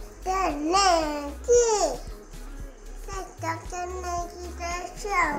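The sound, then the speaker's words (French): A young girl babbles in the room, with high, sing-song syllables that swoop up and down in short bursts, over a steady low hum in the background. “Ah, ma fille dit que je fais trop de bruit.”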